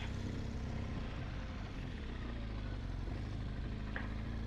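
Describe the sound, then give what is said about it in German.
A motorcycle engine drones steadily as the rider rides on, a loud, continuous low rumble that holds for the full few seconds with no voices over it. “Ja, und das ist, ich fahre weiter, weil es ist ja der Motocast”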